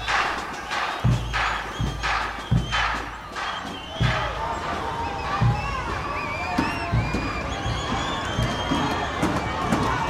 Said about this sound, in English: we're going to listen to some of the sounds you may have heard on the day of the battle as people marched through the streets. Barricades were raised, police horses galloped, and people yelled in anger and in unity.